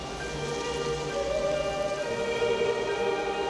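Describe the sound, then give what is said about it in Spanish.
Wind blows in a steady, continuous rush, even in volume for the whole stretch, with a faint sustained hum beneath it and no voices. “Oigo el viento.”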